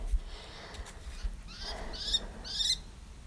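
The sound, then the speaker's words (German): A falcon perched in a tree overhead calls, giving a short series of three or four sharp, high-pitched cries in quick succession over low outdoor rumble, fairly clear. “Ich bin gerade stehen geblieben, ist ein Falke über mir im Baum, das ist voll schön.”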